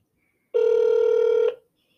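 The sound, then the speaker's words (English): A single ringback tone from an outgoing phone call, one steady, buzzy one-second burst, loud, with silence before and after and no talking. “Phone's ringing.”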